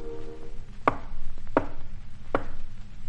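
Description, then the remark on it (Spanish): Three sharp, evenly spaced knocks on Alí's door at nightfall by a man posing as a merchant, each a crisp woody thud, over a low, steady rumble of background noise. “¿Quién es el que llama ahí?”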